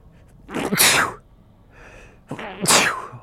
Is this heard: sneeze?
yes